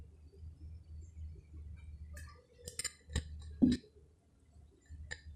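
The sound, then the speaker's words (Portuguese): Someone drinks water from a glass: a few short, sharp clinks and handling taps cluster in the middle, with soft sipping sounds, over a low steady hum and no talking. “Então veja, é, vou tomar um gole d'água enquanto isso.”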